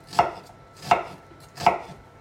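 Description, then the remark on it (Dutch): A knife chops through onions on a cutting board, cutting them into fine cubes, three sharp, evenly spaced strokes about three-quarters of a second apart, crisp with no voices. “Snijden van de juintjes.”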